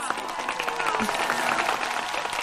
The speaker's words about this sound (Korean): 어디 뭐 외국인이 사, 박수를 치시네? 어우, 난 칸에 온줄 알았어요. 네, 브라보, 브라보.